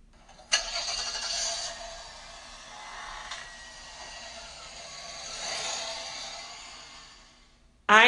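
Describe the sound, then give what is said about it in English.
Outside, a sharp thud of a car door shutting as a man gets into his car, then the engine turns over and runs with a steady, rough whir for several seconds before cutting off abruptly; no one speaks. “I hear him laugh outside and then get into his car.”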